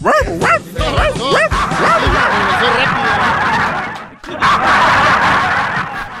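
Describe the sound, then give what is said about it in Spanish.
A man's voice imitates a barking dog with a rapid burst of loud, yappy barks over about two seconds, followed by a stretch of lively, noisy commotion. “Terminé ladrando de decir su nombre, maestro.”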